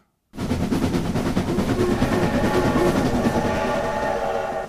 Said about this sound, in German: Es ist bereits dunkel, als der Zug in den Bahnhof von Triest einfährt.